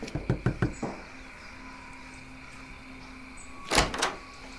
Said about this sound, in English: We're gonna knock on the door. You guys are gonna say trick or treat. All right? Uh-huh. All right, knock on the door.